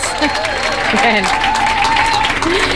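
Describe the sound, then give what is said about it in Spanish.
Loud, sustained audience applause in Argentina, given for the people listening at home, fills the whole stretch, a dense wash of clapping with scattered cheers and voices rising through it. “Pido un aplauso fuerte para la gente que está escuchando en casa, que sepa que hay personas acá.”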